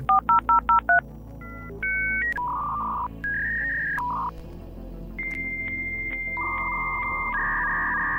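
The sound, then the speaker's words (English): A dial-up modem connecting: five quick touch-tone beeps dial out, then a run of steady, shifting electronic tones and screeches as the handshake plays, loud and clear with no talking. “The birth of the internet brought that sound of the modem dial up connection.”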